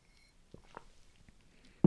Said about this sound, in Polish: Pozwolę sobie zrobić przerwę na łyka wody.